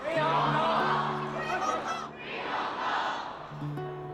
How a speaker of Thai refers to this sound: และเสียงตะโกน ปลดปล่อยฮ่องกงการปฏิวัติในรุ่นของเรา 9 สิงหาคมวันที่เราเดินทางถึงฮ่องกงเสียงตะโกนของคนนับหมื่นนับพันดังกึกก้องบริเวณที่รอผู้โดยสารขาออก